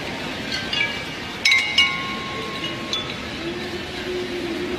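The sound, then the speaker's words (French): Porcelain bowls of different sizes, an art installation set on the surface of a body of water, drift with the current and clink together in a few bright, ringing chimes, clustered in the middle, with sustained tones fading over a steady watery hiss. “C'est aussi une installation artistique, une collection de bols de porcelaine de différentes tailles posés à la surface d'un plan d'eau et qui s'entrechoquent au fil du courant, ce qui produit ce son cristallin.”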